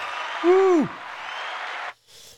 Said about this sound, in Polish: Mamy sponsora odcinka. oh, yeah. Powinny być brawa. Brawa. Brawa, no. proszę bardzo.